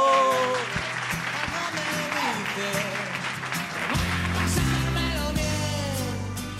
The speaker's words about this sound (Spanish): Nos hemos venido a Calpe, al Instituto de Educación Secundaria y FACH. ¡Un fuerte aplauso!